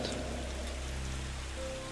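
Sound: rain falling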